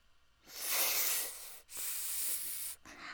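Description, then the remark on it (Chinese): A hungry snake hisses in two long, breathy bursts with a brief break between them, then a shorter third hiss. The sound is airy, high-pitched and fairly loud, with no voices. “正在这个时候，一条饥饿的蛇出现了。”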